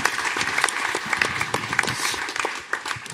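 applause

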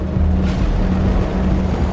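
rocket engine ignition roar

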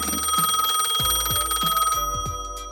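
telephone ringing

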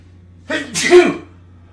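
sneeze

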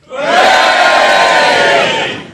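audience cheering

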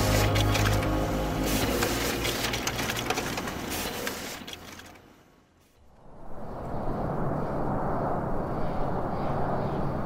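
printer running

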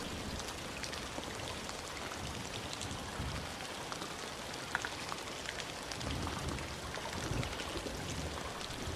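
rain falling

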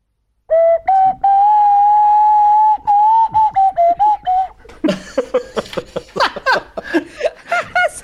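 nose flute being played

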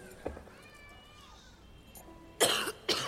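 coughing

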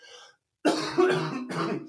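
cough

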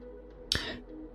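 computer keyboard clicking

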